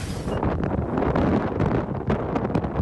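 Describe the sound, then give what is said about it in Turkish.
Strong storm wind in harsh weather, with a boat about to sink, roars continuously, buffeting the microphone with a dense, rumbling gusty noise that never lets up, with no voices. “Arkadaşlar hava çok sertledi. Şu anda asil batmak üzere.”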